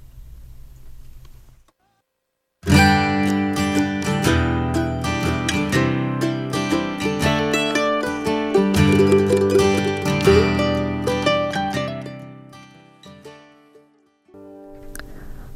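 A pop rock song bursts in after a short silence, loud and full with a steady beat and bright layered instruments, then winds down and cuts off just before the end.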